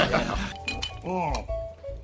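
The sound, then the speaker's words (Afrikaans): Glasses clink together in a toast, several bright ringing taps, each tone lingering briefly, with a voice and background chatter rising between them. “en dan drink ons op die laaste aanbou en op die Jansens se vroeë vertrek”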